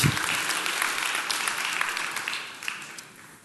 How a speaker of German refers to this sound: Dafür dürft ihr klatschen, gerne. Wenn dann richtig.